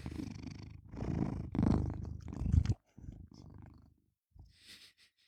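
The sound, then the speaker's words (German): A male cat purrs loudly, in several rumbling bursts that rise and fall with its breathing, then softer and fading toward the end with short pauses between. “Möchte dein Kater etwa auch was zu der Folge sagen?”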